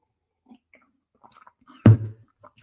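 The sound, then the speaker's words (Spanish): A single short slurping sip of coffee, followed by a brief swallow, with a few faint mouth noises and small clicks scattered around it in otherwise quiet surroundings. “Un café por eso.”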